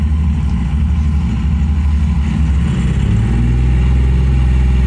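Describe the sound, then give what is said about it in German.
A car engine roars loudly for the whole stretch, its deep drone shifting pitch as the car accelerates past, overtaking another car. No voices. “Ich fahre schon extra 50 Kilometer schneller, damit ich den Verkehr nicht ausbremse und der Stadtplan-Falschfalter überholt mich.”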